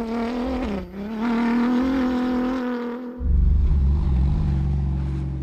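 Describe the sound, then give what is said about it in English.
The engine of Sébastien Loeb's BRX Hunter rally car at the Dakar 2022 off-road endurance rally roars loudly, its pitch climbing through the gears with a brief dip, then a deep rumbling surge as it passes, with no one talking. “Immersive audio experience of the world’s toughest off-road endurance event”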